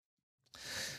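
yawn

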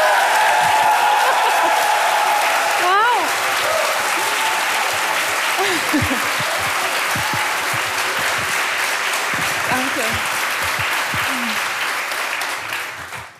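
audience applauding loudly

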